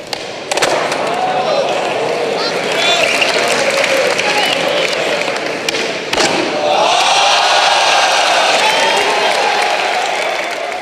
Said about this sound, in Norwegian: Det var jo stort publikum. Og... Ja, ja, det var helt, helt sprøtt. To, og et halvt tusen mennesker som ropte og hylte og skreik.